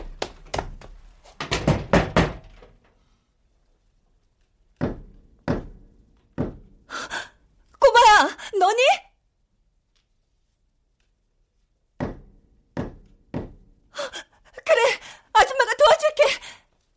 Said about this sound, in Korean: 혹시라도 아줌마 도움이 필요하다면 세 번, 세 번 쿵쿵쿵 발을 굴러. 아줌마 집에서 다 들리니까 그땐 아줌마가 바로 올라갈게. 쿵쿵쿵 세 번 도움을 요청하는 소리야.